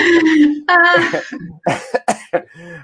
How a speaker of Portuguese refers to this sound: Até tossi aqui.